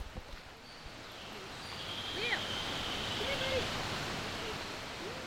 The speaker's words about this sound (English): This is Rock Creek Park. It's an unexpected stretch of glorious nature in noisy and crowded Washington, D.C.